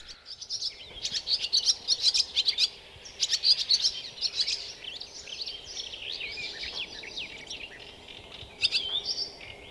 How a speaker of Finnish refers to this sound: alkaa aamun upea kesäkonsertti soida myös pihalaidalta lehtokertaa